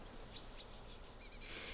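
Faint, high-pitched bird chirps repeat every fraction of a second, sounding distant over a steady low background hum, with no voices present.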